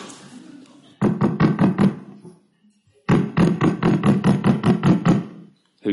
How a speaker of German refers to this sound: Und endlich fing er an zu denken, es könne in den Grenzen der Möglichkeit liegen, dass jemand an die Haustür klopfe.